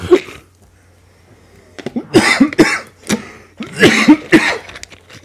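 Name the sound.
coughing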